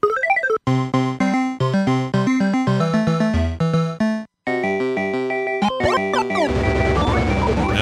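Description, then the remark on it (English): Sounds from a 1985 arcade video game: a rising electronic sweep, then rapid strings of bright synthesized bleeps and jingles. A brief silence follows, then more chirpy tones and sweeps, ending in a buzzy, noisy rumble. No talking. “The year was 1985. Arcade is the other.”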